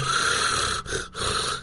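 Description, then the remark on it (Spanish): A person imitates with their voice the rattling rales heard when breathing with mucus lodged in the bronchi, a rough gurgling rasp repeated in a few loud pulses with brief pauses between them. “Cuando respiras, escuchas estertores y ruidos al respirar.”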